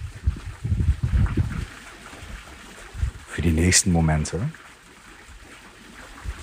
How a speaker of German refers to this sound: lass dich einfach von dem Klang des Wassers neben dir, des Windes und meiner Stimme in die Entspannung begleiten.